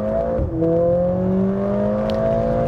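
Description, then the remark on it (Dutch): A sports car engine roars loudly through its exhaust, dipping briefly as it shifts, then its deep note climbs steadily as it revs, with no voices. The exhaust sound is being adjusted with a second button on the steering wheel, in the less sporty drive modes. “een beetje indrukwekkend motorgeluid te kunnen hebben...”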